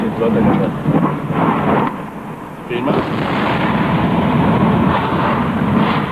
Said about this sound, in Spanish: Un ruido muy fuerte invadió la ciudad. Una explosión retumbó en todo Río Tercero. Minutos más tarde se escuchó otro terrible estallido. La planta de fabricaciones militares de Río Tercero había explotado. De ahí venían los estruendos.